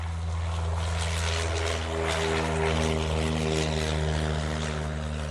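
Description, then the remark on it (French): A propeller airplane in flight, bound for Baton Rouge, its engine droning steadily and loudly, the deep harmonic hum constant throughout with a broad roaring wash over the top and no voices. “L'avion ne fera pas le trajet jusqu'à Bâton Rouge. Quelques heures après le décollage, il connaît de nouvelles avaries, plus graves ce coup-ci, et s'écrase dans les marais du Mississippi, près de Gillsburg.”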